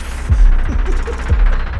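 A deep, booming heartbeat sound effect thumps in low pulses, roughly two double beats, loud over a faint hum with no voices.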